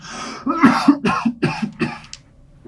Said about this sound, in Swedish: Däremot så hör ni nu alla hur Truffaut hostar.